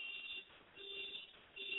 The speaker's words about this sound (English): If somebody doesn't turn off that car alarm